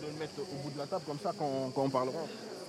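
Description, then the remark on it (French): Cicadas chirp loudly in a steady, unbroken high-pitched drone at the Cloître Saint-Louis, running through the whole moment, while a person talks over the top of it. “Des cigales à fond, des cigales vraiment énervées.”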